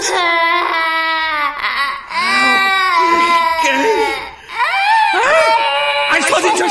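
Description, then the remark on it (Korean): A baby who has woken from sleep cries loudly and continuously in long, wavering high-pitched wails, with brief gasping breaks between cries and rising, strained bursts toward the end. “아, 안 그래도 힘들어 죽겠는데 자다 말고 계속 저렇게 울면, 그거 어떻게 합니까?”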